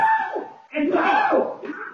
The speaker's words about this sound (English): They were screams in a Los Angeles neighborhood last year that went viral.